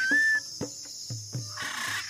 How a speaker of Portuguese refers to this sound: Vamos adentrar a paisagem sonora da floresta amazônica, na região norte do Brasil